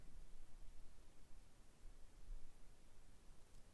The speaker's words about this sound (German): Jetzt habe ich es relativ auch hoch ausgepegelt, glaube ich. Also ich höre jetzt zumindest in dem Monitoring höre ich ein gewisses Rauschen.